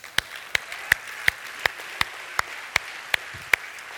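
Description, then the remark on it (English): A church audience claps for the church's leaders in a steady, even rhythm: about eleven sharp, crisp claps spaced evenly over a soft wash of background noise, with no talking. “Uh, yeah, we can clap for them.”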